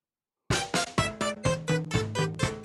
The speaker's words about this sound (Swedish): Vi tar en jingle på det.